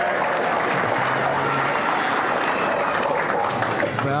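Steady audience applause welcoming a guest artist, a dense, even roar of many hands clapping at a loud level, with a bit of crowd noise mixed in.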